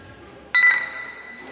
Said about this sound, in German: Ich würde sagen, stoßen wir erstmal an. Genau.